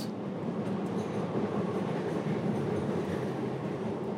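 A Paris metro train rumbles steadily along the track, a dense low roar with faint rattling and clatter, continuous and without any voices.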